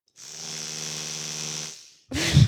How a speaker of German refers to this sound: ist eine Zahnbürste. Gut, dass du es nochmal gesagt hast. Das hätte man so gar nicht erkannt.